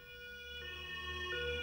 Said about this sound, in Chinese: 这时候救护车也赶到了